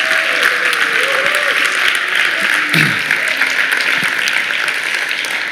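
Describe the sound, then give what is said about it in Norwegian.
An audience applauds steadily and loudly in a sustained burst of dense clapping, celebrating that Akta samfunnsbygger has been approved and become real, with faint voices and a few cheers rising under the applause. “Vi må klappe for at Akta samfunnsbygger er blitt virkelig.”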